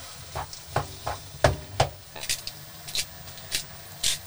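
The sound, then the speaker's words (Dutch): Freshly cut tomatoes sizzle in a hot pan with a steady crackling hiss, punctuated by irregular sharp pops and spatters throughout. “Oké, de tomaatjes gaan erin. Vers gesneden tomaatjes.”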